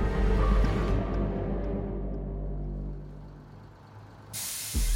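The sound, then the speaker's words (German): A heavy vehicle's engine rumbles low and steady, then a sudden loud burst of pneumatic air hiss sounds near the end as driver Kevin McKay opens the doors of school bus 963. “Kevin McKay öffnet die Türen des Schulbus 963.”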